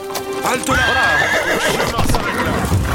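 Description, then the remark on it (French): A plump horse ridden by a gruff man whinnies loudly at the edge of a clearing, a long quavering neigh with clip-clopping hooves beneath it and a voice murmuring faintly in the background. “à la lisière d'une clairière, un homme bourru sur son cheval joufflu.”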